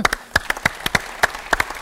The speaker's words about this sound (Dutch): Inderdaad, omdat zowel jullie als wij op zijn komen dagen met een heel warm applaus voor onszelf.